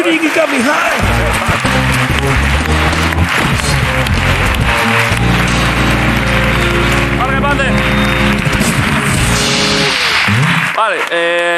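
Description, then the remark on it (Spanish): Loud, sustained audience applause runs steadily for about eleven seconds, a dense crackle of many hands clapping, mixed with music and voices underneath before it cuts off at the end. “Vale, pues un aplauso.”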